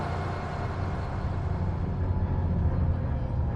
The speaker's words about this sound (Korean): 버스는 한강을 가로질러 반포대교를 지나게 됩니다. 길이 막히지만 않는다면 6분 정도의 시간이 소요된다고 합니다.